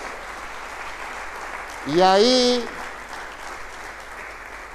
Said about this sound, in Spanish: ¿Y qué espera para darle un aplauso a Dios entonces?